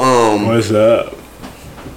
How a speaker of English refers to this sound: did you just yawn? I did. It's early for the yawning.